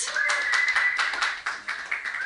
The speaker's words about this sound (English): Everybody, clap your hands together